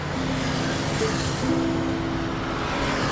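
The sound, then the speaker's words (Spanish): A car engine drones steadily, a strained, continuous rumble with a faint whine that rises slightly partway through, as the car climbs a road past cyclists while its red engine temperature warning light comes on. “Antonio mira el tablero del carro y una luz roja lo alerta.”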